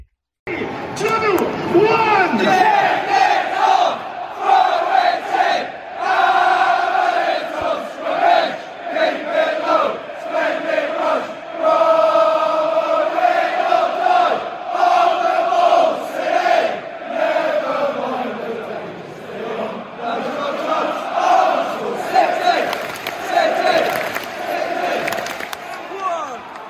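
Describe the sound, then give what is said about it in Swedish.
A large crowd of Norwich City FC football supporters sings the slow, sustained chant "On the Ball, City", called the world's oldest football chant, in unison, voices swelling and sliding together, with a continuous roar of many people underneath. “det är ju att de faktiskt har världens äldsta fotbollsramsa. On the ball city.”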